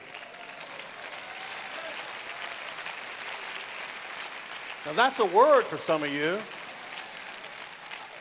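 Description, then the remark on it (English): An audience claps in a steady, broad patter of applause that continues under a man's voice as he speaks over it, his words rising louder and more emphatic toward the end. “You're clapping, but that's a word for you.”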